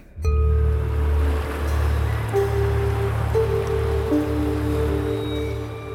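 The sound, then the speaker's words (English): Water rushes and churns continuously at a steady loudness, a dense wash of flowing sound with low droning tones held underneath, no voices present. “Melinoe sat on the bank of the Cocytus, the river of lamentation, at the point where it met the Acheron.”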